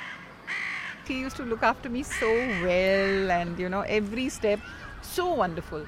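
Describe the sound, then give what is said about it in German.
Crows caw repeatedly in harsh, overlapping calls, some short and clipped, others drawn out, fairly loud, keeping up a steady chorus throughout. “Man achte bei den folgenden Aufnahmen auf die Krähen im Hintergrund.”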